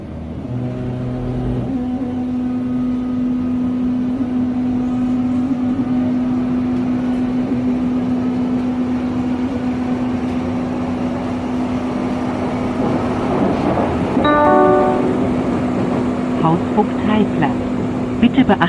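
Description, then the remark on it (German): A Berlin U-Bahn subway train ride on line U2 (U-Bahn-Linie 2): a steady, loud rolling rumble with a sustained low motor hum, broken near the end by a burst of rattling, clacking track noise. “Ja, und dazu fahren wir erst einmal ein bisschen mit der U-Bahn-Linie 2.”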